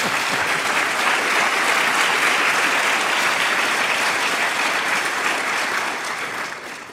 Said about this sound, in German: Der Beifall gilt natürlich unserem prominenten Autor, Professor Manfred Spitzer.